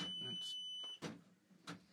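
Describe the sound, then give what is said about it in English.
A powder dispenser gives a single steady, high electronic beep lasting about a second, signalling that a 79-grain powder load is ready, fairly clear, with low voices and some clattering handling noise around it. “It's so that tells you it's ready. Yep. Beeped.”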